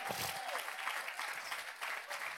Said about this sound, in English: Come on, if you're going to clap, you've got a good hand clap today.